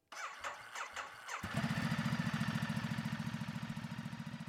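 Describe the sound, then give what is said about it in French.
An early motorcycle engine on the paved streets of an old port sputters through a few cranking bursts, then catches and settles into a loud, rapid chugging idle with a steady pulsing beat. “Les rues pavées du vieux port sont traversées par quelques carrioles traînées par des chevaux, mais on y croise surtout les premières voitures et motocyclettes.”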